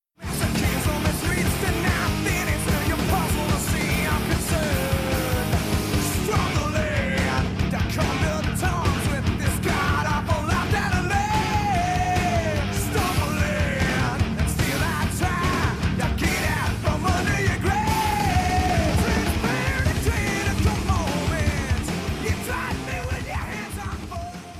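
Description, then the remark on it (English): A loud, dense 1993 thrash metal song plays throughout, with distorted guitars, pounding drums and a vocalist shouting and bellowing over the driving band. “This is … with ….”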